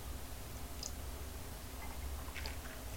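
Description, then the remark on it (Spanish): Quiet first morning sips from a cup of hot, bitter coffee: a couple of soft slurping mouth sounds over a low background hum, with no one talking. “voy a darme un sorbito amargo para contarles los temas principales”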